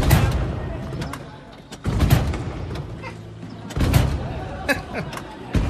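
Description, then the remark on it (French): Car doors slam shut in a loose rhythm as a rhythmic break in a music rehearsal, loud heavy thuds arriving in pairs every couple of seconds, with a murky, reverberant background between the hits. “T'as par exemple l'arrêt rythmique avec le bruit des portières.”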